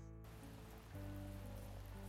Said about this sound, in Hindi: याद आ गई थी उसे वो चार साल पहले वाली बारिश